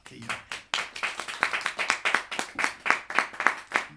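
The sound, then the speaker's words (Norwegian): A small audience claps steadily for a few seconds to welcome guest Sara Baban, a dense patter of sharp hand claps at a brisk, slightly uneven rhythm with no talking over it. “Nå skal vi klappe litt for Sara.”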